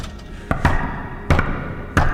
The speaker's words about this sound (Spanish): Amanecía cuando sonaron grandes golpes en la puerta del palacio.